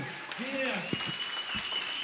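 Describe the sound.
An audience claps steadily throughout, a dense, even wash of applause, with a voice calling out over it and a few brief shouts or cheers.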